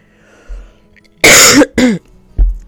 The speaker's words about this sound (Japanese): ごめんなさい咳してます